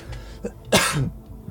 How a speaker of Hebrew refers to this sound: הוא אמר, רגע אני משתעל